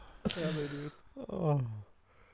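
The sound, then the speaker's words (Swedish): Two loud sneezes in quick succession, each a sharp noisy burst trailing into a voiced, falling tone, with a brief pause between them. “Prosit!”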